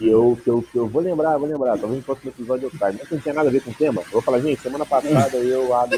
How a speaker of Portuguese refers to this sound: Não é, é que tá chovendo e tá caindo o mundo aqui em São José, sempre que chove é assim. Então. Ah, isso é o barulho da chuva.